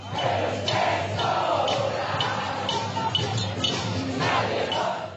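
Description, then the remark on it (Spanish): A large crowd at a peaceful protest chants and shouts in Plaza de la Dignidad in Chile, marking one year since the start of the social uprising, a dense, continuous roar of many voices with rhythmic surges, steady and loud throughout. “Este domingo se conmemoró un año del inicio del estallido, durante la mayor parte del día hubo manifestaciones pacíficas en lo que se ha llamado la Plaza de la Dignidad.”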